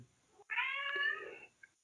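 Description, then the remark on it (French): A single drawn-out cat meow, clear and close, lasting about a second with a slightly wavering pitch, followed by a tiny faint chirp; no talking. “Et du coup, petit chat.”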